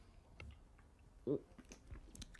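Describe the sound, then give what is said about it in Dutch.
One short sip, the last of a drink, a brief wet slurp standing out against quiet background noise and a few faint mouth clicks. No one speaks. “Maar ik ga nu even mijn laatste slokje drinken.”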